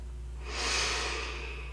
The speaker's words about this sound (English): and I'd like to invite you to begin breathing in through your nose. So let's take a slow breath in